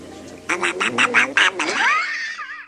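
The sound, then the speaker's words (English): A person's voice does a Donald Duck impression, a quick run of squawky, buzzy quacking syllables with a rising warble at the end, fairly loud. “does a quick Donald Duck impression.”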